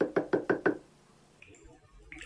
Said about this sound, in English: Haynes knocked on the door.